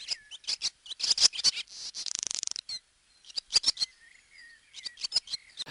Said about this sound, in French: c'est l'hirondelle type avec la longue queue fourchue